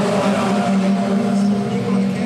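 A race car engine drones loudly and steadily throughout, its harmonic whine holding an even pitch without fading in or out, with no one talking over it.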